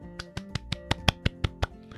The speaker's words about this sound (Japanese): えーと、自分で拍手で効果を入れてみましたけれども